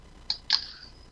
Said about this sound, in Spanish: Anda el gato maullando por ahí.